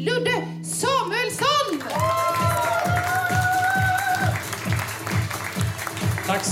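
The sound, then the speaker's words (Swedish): An audience at a stand-up comedy show bursts into sustained applause for the comedian, with whoops and cheers rising over it, a few shouted voices at the start, then steady loud clapping continuing throughout. “Stor applåd för”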